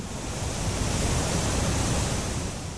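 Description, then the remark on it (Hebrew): A huge waterfall roars in a steady, dense rush of crashing water, loud, holding constant for a few seconds with no voices. “תחשבו על מפל ענק של מים”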